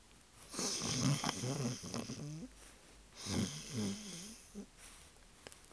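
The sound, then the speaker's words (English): A person imitates the loud snoring of an old witch lying fast asleep in the hay in a barn: two long, raspy breaths with a rattling, gurgling quality, each rising and fading in a slow rhythm. The voice is clear, with no other talk. “An old witch was lying in the hay, fast asleep”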